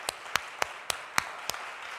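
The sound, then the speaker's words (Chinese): Applause in sparse form at a church Mother's Day service, thanking the mothers who stand up: about six sharp, distinct claps at an uneven, roughly steady pace over a low background hiss, with no talking. “我们请我们当中所有当妈妈的人，当妈妈的人，我们要请你站起来，我们用热烈的掌声来感谢他们。”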